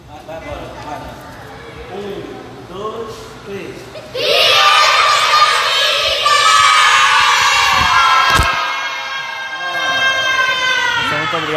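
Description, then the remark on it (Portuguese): A large group of children erupts into loud, sustained shouting in unison, an official chant, after a few seconds of quieter voices and bustle, continuing energetically until the end. “Vou cantar até três agora um grito, origin... um, um grito oficial para vocês, hein?”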